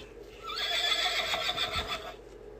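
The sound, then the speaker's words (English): A horse neighs in one long, shrill whinny lasting about two seconds, loud, with a wavering, quivering pitch that trails off at the end. No one speaks. “The horse loves to run.”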